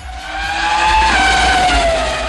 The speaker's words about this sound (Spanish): Este monoplaza de habitáculo cerrado esconde un motor de 2.000 centímetros cúbicos turbocargado de solo cuatro cilindros que es capaz de generar 600 caballos de potencia.